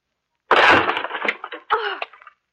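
A loud splintering crash of a wooden door being broken down, followed by a scatter of cracks and smaller clattering impacts that trail off over about two seconds. No one speaks.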